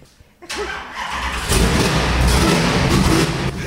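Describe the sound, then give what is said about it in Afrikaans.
A car engine cranks and fires up about half a second in, then settles into a loud, steady rumble with a throaty exhaust note from two round exhaust pipes at the back, building slightly as it revs. “Daar's twee sulke ronde pype daar agter, dis jou radio. Dit is al waarna jy luister.”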